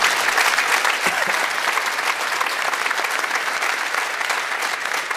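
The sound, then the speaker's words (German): Steady, dense applause from a studio audience welcoming video referee Tobias Reichel, who joins by video link from Cologne. Many hands clap at a constant loud level for several seconds with no speech over it. “Großer Applaus für Tobias Reichel.”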